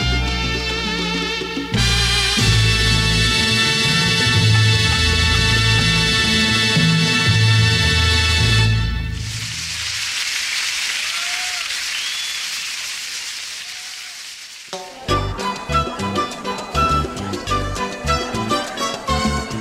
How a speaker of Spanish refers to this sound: con la ovación más prolongada.